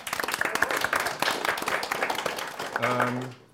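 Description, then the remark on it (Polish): An audience claps steadily in dense, crackling applause welcoming guest Franek Sterczewski, a member of the Polish Sejm from Poznań. The applause fades out toward the end as a voice begins to speak over it. “Naszym gościem, naszym gościem dzisiaj e, bardzo się cieszymy jest Franek Sterczewski, wielkie brawa.”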